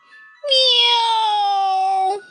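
A single long, drawn-out meow with a steady, slightly falling tone and a bright, nasal quality, loud and alone, after a faint, brief lead-in.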